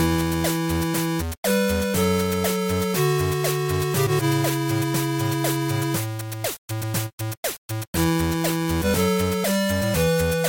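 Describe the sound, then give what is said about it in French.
Bright, buzzy 8-bit chiptune music in the style of an old NES game, with square-wave melodies over a pulsing bass line, playing loudly with a few abrupt stuttering breaks near the end. “Alors l'influence c'est chiptunes, hein, évidemment.”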